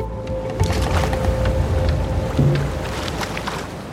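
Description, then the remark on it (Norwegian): Oars dip and splash steadily through water as a small pram is rowed across to Bygdøy in the cold, with a continuous watery wash and a faint steady hum underneath; no voices. “Og etter en lang stund så tok de da på seg vindjakkene igjen og gikk ut i kulda og ned til prammen og begynte å ro over til Bygdøy igjen.”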